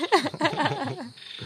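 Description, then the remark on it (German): A dense chorus of frogs croaking loudly and continuously at night, with rapid overlapping calls and a faint steady insect-like hum running underneath, busy throughout. “Ich glaube, das ist ultra laut mit den Fröschen.”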